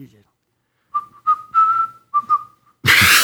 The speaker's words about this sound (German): Jetzt habe ich darüber nachgedacht, dass ich gepfiffen habe und schon ging es nicht mehr. Deswegen habe ich immer Angst, auf Kommando zu pfeifen.